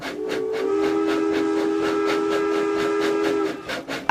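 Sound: train travelling on rails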